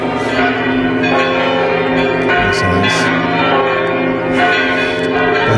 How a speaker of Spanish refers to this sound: Bueno, que suenen las campanas de la Catedral de Santiago, por favor.